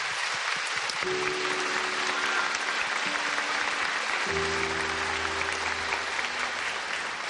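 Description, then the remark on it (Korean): A crowd claps steadily throughout, a dense, even wash of applause with no voices, while faint low sustained tones hum underneath for most of the stretch. “정말 갑자기 그냥 동생한테 그냥 힘을 주고 싶고 모든 걸 다 극복하고 이기고 다시 재도전으로 더 열심히 화이팅 할 수 있도록 박수 한번 쳐주셨으면 감사하겠습니다.”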